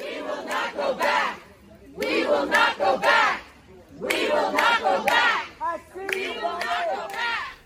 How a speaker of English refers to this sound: Uh, several of the conservative justices who you know reside in suburban northern Virginia have had large groups of uh, protesters, progressive protesters, marching down streets, um, shouting into bullhorns. We have a clip of one of those here.